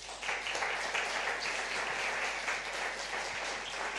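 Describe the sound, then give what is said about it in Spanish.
Sustained applause to the Lord from a crowd during a Spanish-language sermon, a dense, steady wash of many hands clapping at once that stays loud and even for several seconds with no voices standing out. “Dele un aplauso gigante al Señor.”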